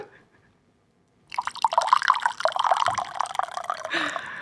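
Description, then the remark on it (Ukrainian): Green tea is poured into a cup in a steady stream lasting about three seconds, with a bubbling gurgle whose pitch rises slightly as the cup fills, after a brief silence. “Ви чуєте, як наливається зелений чай, і наша бесіда продовжується.”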